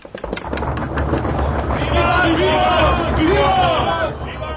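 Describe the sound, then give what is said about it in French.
A university audience welcoming Schiller breaks into loud, rapid clapping, then a crowd of voices rises into sustained enthusiastic cheering, shouting the Latin word 'vivat' three times over the continuing applause. “Les spectateurs applaudissent avec enthousiasme et crient trois fois l'expression latine vivat, qui veut dire hurrah.”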